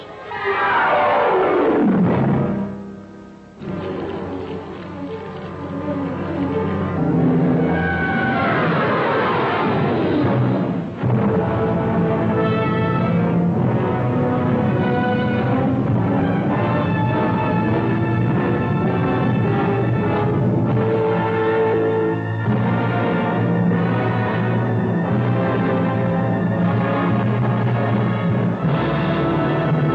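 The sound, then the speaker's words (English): The trailer soundtrack for the 1957 film The Incredible Shrinking Man: a loud, swooping roar-like sweep opens into dense, dramatic orchestral chords that swell continuously for the whole stretch, with no voices. “You've just heard the trailer for the incredible Shrinking Man from 1957.”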